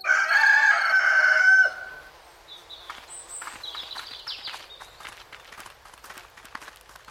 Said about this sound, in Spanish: Verás cómo el aliento de la tierra cubre cada rincón del pueblo con su bruma blanca para confundir a los espíritus, mientras el gallo anuncia un nuevo amanecer.